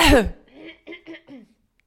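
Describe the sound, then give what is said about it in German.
A sharp, loud cough bursts out, followed by a few quick guttural throat-clearing rasps in a short rhythmic series, then silence. “wir sind Menschen, wir husten, es wir machen sogar Pipi und AA, ja.”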